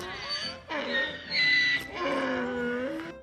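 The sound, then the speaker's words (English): A loud donkey bray, a harsh, raspy call in several long drawn-out pulses that rise and fall over about three seconds, with no other sounds around it. “And it's where the birds and the bees and the donkeys”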